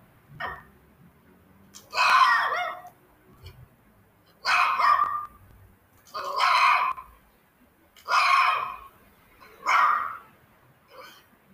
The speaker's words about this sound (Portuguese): Aqui está o cão.